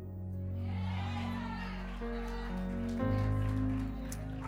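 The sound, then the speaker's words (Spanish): Three people clap in a loose, scattered way, the patter fairly quiet and mixed under sustained keyboard chords, with a voice present in the background. “Tres aplauden como focas, pero está bien.”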